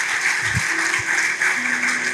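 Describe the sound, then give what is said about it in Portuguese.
A church audience claps for Jesus on behalf of the single people, in steady, dense applause that fills the whole stretch at an even, fairly loud level, with no voices standing out above it. “Uh, vamos aplaudir Jesus pelos solteiros.”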